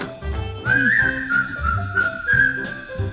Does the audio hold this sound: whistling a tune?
yes